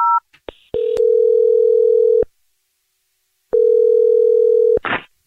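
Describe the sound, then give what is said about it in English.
A phone call being placed: a few quick keypad beeps, then two long, steady ringing tones separated by a silent gap, ending in a short burst of noise as the line connects. “Well, we'll dial his phone number right now.”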